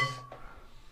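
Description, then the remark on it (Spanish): Glasses clink together in a toast, a quick bright tap followed by a second touch, leaving a short ringing tone that fades into quiet. “Pues, pues, salud. Salud. Salud.”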